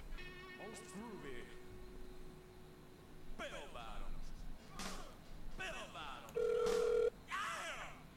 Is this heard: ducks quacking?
no